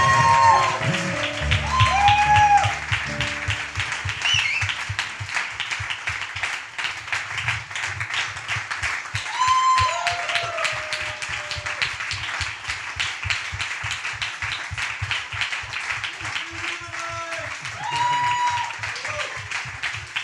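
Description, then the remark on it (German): A crowd applauds steadily for about twenty seconds after a blessing, the dense clapping holding at an even, fairly loud level, with scattered whistles and cheering voices rising above it. “Gebt ihnen doch nochmal einen kräftigen Applaus.”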